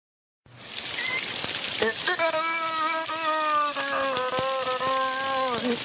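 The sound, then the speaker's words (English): A beluga whale that lived in captivity spontaneously produces wordless, voice-like warbling tones that mimic the cadence of human speech, heard over a steady hissing background noise for several seconds. “But here's a recording of No a beluga whale that lived in captivity and spontaneously began mimicking human speech.”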